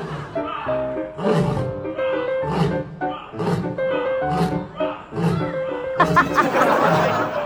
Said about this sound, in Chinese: 最近有网友分享了一段在动物园里面跟狮子互动的视频啊，说的好听叫互动，说不好听叫杠起来。你听听，啊，狮子和游客那一声又一声的对吼啊，